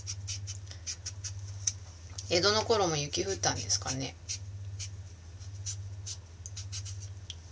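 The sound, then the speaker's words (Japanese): A peeler scrapes along a carrot in quick, repeated rasping strokes at a steady rhythm, with a person speaking briefly midway and a constant low hum underneath. “人参の皮を剥いてますよ”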